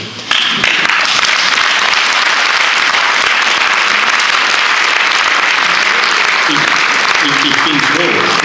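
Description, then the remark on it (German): An audience at a talk breaks into sustained applause after the line 'offline is the new luxury', a dense, steady wash of clapping that starts abruptly and holds at a loud, even level for several seconds, with faint voices underneath toward the end. “bin froh, dass Sie das äh, äh, mit einem Applaus quittieren”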